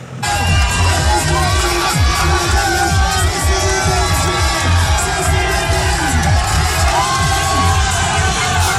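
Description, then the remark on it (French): Benoît Costefroy's roadside fan club cheering as he arrives: a loud, dense crowd of fans cheers, whoops and shouts continuously, with voices rising and falling in sung, chant-like lines over the steady roar, never dropping out across the whole stretch. “Voilà, Benoît Costefroy qui, qui arrive euh, à l'endroit où se trouve euh, son fan club, euh, qui, qui boit une bière, qui se met à danser, à chanter avec ses copains.”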